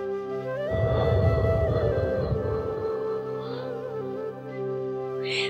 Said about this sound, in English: Just in case the exhale is unclear, I want you to hear the sound. So I'm going to breathe in for a count of four. One, two, three, four. I hold for seven. One, two, three, four, five, six, seven. Now my exhale will sound like this.